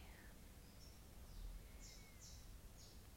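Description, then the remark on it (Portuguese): Faint chirps from a small bird singing, a handful of short high notes scattered over a low, steady background rumble, with no one speaking. “E tem um passarinho cantando, que delícia.”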